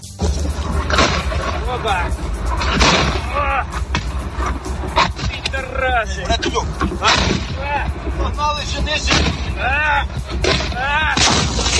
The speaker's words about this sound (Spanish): Los ataques siguen, sobre todo en Bakhmut, en la provincia de Donetsk, donde siguen lloviendo misiles como los que acabamos de escuchar mientras soldados ucranianos intentan ponerse a salvo.